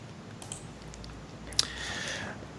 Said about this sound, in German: Ähm, jetzt muss ich hier blättern.